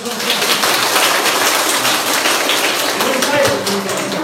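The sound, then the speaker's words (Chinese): Warm audience applause welcoming a speaker to the stage: a dense, steady wash of many hands clapping, loud and continuous for about four seconds without letting up. “好，下面用热烈的掌声把舞台交给熊老师。”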